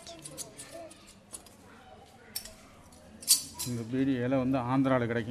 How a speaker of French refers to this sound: une lamelle de métal de 4 cm sur 6 que Mohamed Kassim place sur les feuilles de tabac, les découpant avec une paire de ciseaux des plus archaïques